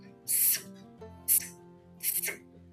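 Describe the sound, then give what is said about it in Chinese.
A voice imitates the speaker's own breast pump expressing milk, as done in an office shared with a coworker, with three short, breathy hissing bursts at irregular spacing, the first longest, over a faint low hum. “所以我那时候在跟他在一起在同一个办公室挤奶， 嗯 我的挤奶声音是长这样，”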